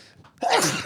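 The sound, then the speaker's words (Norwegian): A single sudden sneeze, loud, bursting out after a brief quiet inhale, with a sharp noisy explosion of breath. “Gesundheit!”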